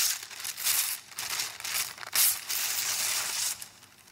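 Paper wrapping that had covered a chair being torn and crumpled: a steady run of dry, crackly rustling bursts, irregular and fairly loud, with short pauses between rips over about four seconds, no voices.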